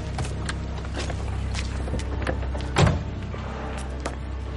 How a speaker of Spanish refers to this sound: Malpica se baja del coche.